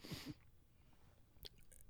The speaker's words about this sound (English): Um, so bless you. Yeah, that was a nice sneeze.